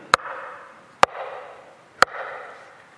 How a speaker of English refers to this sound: Behold, I stand at the door and knock.